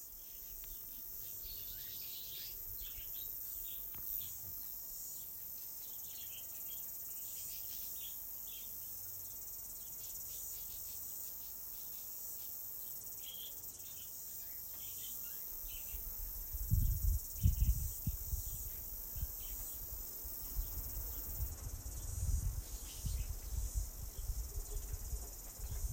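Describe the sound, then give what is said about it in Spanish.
Flies drone in a steady, high-pitched insect hum that never lets up, joined about halfway through by a low, uneven rumble underneath. “Escucha las moscas.”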